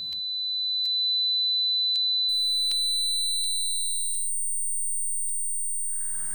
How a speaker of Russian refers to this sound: Миллионы глухих, да и слышащих, мучаются от тинитуса, иллюзорного звона в ушах – Сейчас осторожнее, будет неприятно. Это может быть похоже вот на такой звон, писк.